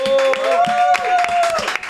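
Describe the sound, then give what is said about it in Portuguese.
An audience applauds to welcome Cash Luna, with a steady patter of many hands clapping, while a sustained vocal cheer or whoop rises above it. “Bom, eu, hoje eu tenho a honra de receber aqui nesse Brunecast Cash Luna, um forte aplauso!”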